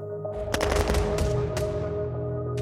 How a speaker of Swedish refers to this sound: Dagligen förekommer skottlossning